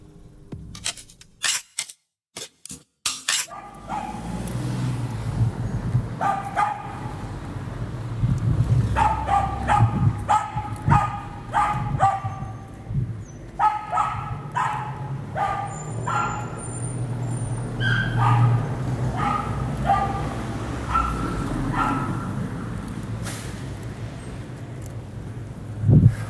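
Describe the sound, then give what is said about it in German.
Dogs bark over and over in ragged bursts, sometimes in quick clusters, with a few higher yips, against a steady outdoor hum. After a few opening clicks, the barking carries on without any talking. “falls sich noch mal irgendjemand fragt, warum ich Hunde hasse wie die Pest. Weil diese scheiß Viecher, ob in Wohnungen oder draußen oder überall, immer nur ewig bellen.”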